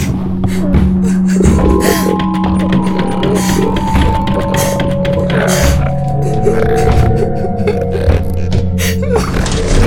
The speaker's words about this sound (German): bis ein Gurgeln ertönte. Ein kehliges Keuchen, das eindeutig von … stammte